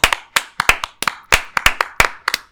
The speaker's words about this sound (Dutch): En dames en heren, een groot applaus en de eeuwige eer.